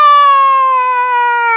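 A rooster crows once, a loud, sustained high-pitched call that holds steady and slides slightly downward toward the end, with no talking.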